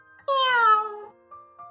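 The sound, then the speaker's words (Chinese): Wilbur, a big black cat, gives one loud, drawn-out meow that slides downward in pitch and lasts nearly a second, then two faint, brief tonal blips trail off afterward. “威尔伯叫了一声：“喵。”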